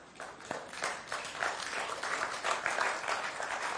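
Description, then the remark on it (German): Modest audience applause, a steady patter of many hands clapping at a subdued level for a few seconds, with no voices standing out. “Das ist noch ein verhaltener Applaus, aber das ist eine tiefe Wahrheit.”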